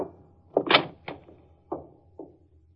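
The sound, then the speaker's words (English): An office door at the offices of Edgar Clemson, attorney at law, is handled and opened: a quick series of wooden knocks and thumps, the loudest near the start, then a few softer clunks trailing off, with no talking. “I got in through the door.”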